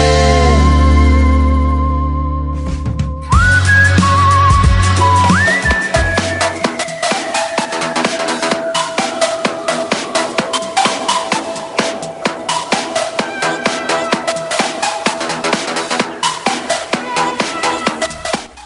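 A song plays loudly and continuously, with steady percussion hits driving a full band arrangement and sustained melodic tones; a brief held chord gives way to the song's energetic start after a few seconds.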